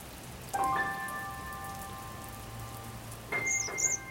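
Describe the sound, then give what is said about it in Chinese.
Raindrops fall in a steady, soft patter, with a bright ringing plink early on and a second cluster of high, glassy drips near the end. No one speaks. “就连下雨天，他都觉得雨滴声就像清透的弹珠，一颗一颗的雨滴，仿佛可以组成一段好听的歌曲。”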